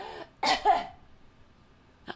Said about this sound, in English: When somebody comes over, she's like, I have allergies. I wasn't really coughing on her. And that's how you behave, even if you have allergies. That's how you act. You cough on people.